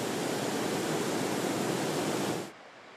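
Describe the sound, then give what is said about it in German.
A loud, steady roar of raging floodwater from a severe storm rushing past and sweeping everything along, houses and roads, dense and continuing unbroken for a couple of seconds before cutting down to a much quieter wash. “So wütete das Unwetter vor sechs Monaten. Das Wasser riss alles mit sich.”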